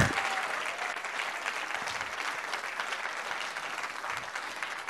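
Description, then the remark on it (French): A church audience applauding to acclaim Jesus of Nazareth, a dense, steady wash of many hands clapping that holds at an even loudness for the full five seconds, with no voices standing out. “Est-ce qu'on peut acclamer Jésus de Nazareth, notre roi et Seigneur”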